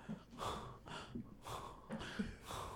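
Heavy, labored breathing near the microphone, a quick steady rhythm of rasping inhales and exhales, about two breaths a second, with no talking.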